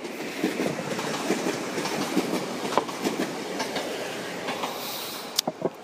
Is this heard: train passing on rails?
yes